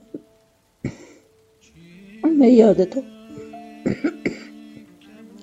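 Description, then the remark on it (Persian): Several short, sharp coughs from a mother, one early and a quick pair near the end, with a person speaking softly between them. “الان اگه بودی گفت چرا صرفه میکنی مادر”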